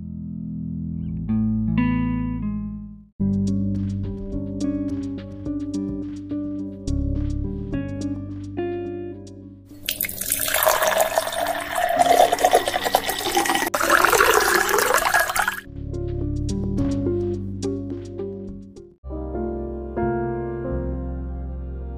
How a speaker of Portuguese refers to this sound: Agora mesmo, irei encher um copo de água fresca do filtro de barro, para saciar então minha sede.